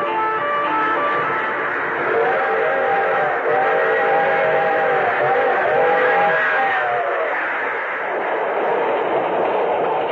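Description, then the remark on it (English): A string of freight cars rumbles steadily and loudly across a dusty stretch of lonely farmland, the train's whistle sounding a long, sustained blast through the middle of the passage before fading back into the rolling clatter. “string of freight cars crossing a dusty stretch of lonely farmland.”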